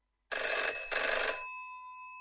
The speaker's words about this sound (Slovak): Čo vám napadne ako prvé, keď sa povie zvonček? Zvonenie telefónu?